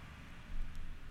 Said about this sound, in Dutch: Komt even een auto, langs. een auto langs. Of een vrachtwagen, zo te horen.